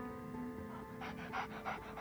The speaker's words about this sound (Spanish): Escuché a mi otro perro venir corriendo y jadeando contento desde el otro lado del patio, lejos de donde yo estaba.